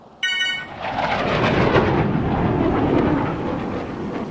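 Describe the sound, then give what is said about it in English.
A loud, steady jet-engine roar of an airplane flying overhead, starting abruptly and rumbling broadly for several seconds, with no one speaking. “Not that kind of plane.”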